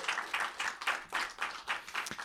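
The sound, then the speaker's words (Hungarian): An audience at a film screening applauds steadily for the Patreon supporters who made the screening possible, many hands clapping together in a dense, crackling wash of sound with no voices over it. “Nekik most egy tapsot szeretnék kérni, mert nélkül tényleg nem jött volna ez össze.”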